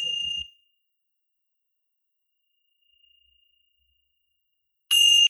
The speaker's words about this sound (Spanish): Y vamos de nuevo a escuchar el sonido campanas.